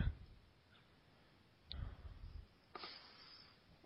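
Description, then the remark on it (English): A few soft, scattered clicks from a computer keyboard or mouse as a zip code is typed into a search, quiet, with pauses between them and no talking. “Let me see if I can type it out now.”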